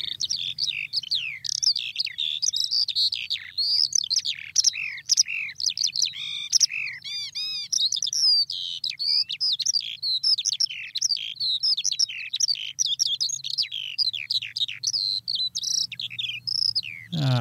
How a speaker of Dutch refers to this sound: want we hebben het nu natuurlijk over uh, de veldleeuwrik. En ik ga hem nog even laten horen